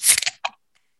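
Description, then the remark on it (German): A beer can is cracked open: a sharp metallic snap and hiss, followed a moment later by a shorter fizzing click, then silence. “Aber ihr habt schon gehört, das ist in einer Dose.”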